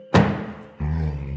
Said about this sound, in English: A horned shadow forms on the dusty ground of the cellar, and an enthusiastic grunt fills the space as I pull my head back up into my closet and slam shut the trap door